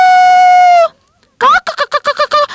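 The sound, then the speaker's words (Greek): A rooster's long, steady crow rings out in a henhouse, then after a short pause a flurry of hens squawk loudly in quick, uneven bursts, with no talking. “Αγριόγατος!» έκαναν οι κότες και μαζεύτηκαν στο βάθος του κοτετσιού.”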